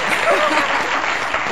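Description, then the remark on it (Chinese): A burst of steady, dense applause, many hands clapping at an even loudness throughout, with a faint voice briefly audible beneath the clapping. “嗯，好，所以我们给这些勇敢告白的人一个大大的掌声。”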